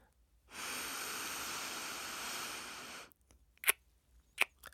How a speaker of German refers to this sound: Wir schließen das rechte Nasenloch und atmen durch das linke Nasenloch ein.